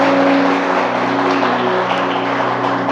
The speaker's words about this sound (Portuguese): Você pode dizer agora? Eu e minha casa serviremos ao Senhor. Você pode aplaudir Jesus por isso nessa noite?